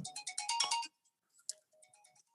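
A mobile phone rings with a rapid, bright electronic trill of repeated pulses, loud, then cuts off, followed by a fainter, softer burst of similar chirping tones.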